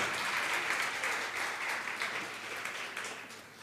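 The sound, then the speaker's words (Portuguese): An audience applauds the Lord during a church sermon, a steady, dense wash of clapping that holds evenly for several seconds and tapers slightly toward the end, with no voices over it. “Pode aplaudir o Senhor agora.”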